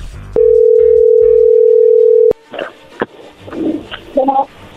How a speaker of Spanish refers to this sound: bueno, a ver, allí entró la llamada, no hagan ruido.